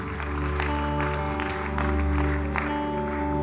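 A round of applause at Activate Church: dense, steady clapping from many hands that carries on without a break, with a sustained low tonal drone, like background music, underneath. No one speaks.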